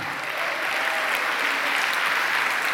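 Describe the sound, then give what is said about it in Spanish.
An audience breaks into steady applause for God, a dense wash of many hands clapping at an even, fairly loud level throughout, with no individual voices standing out. “Denle un aplauso a Dios por eso, amado hermano.”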